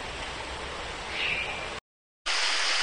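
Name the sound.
flowing river water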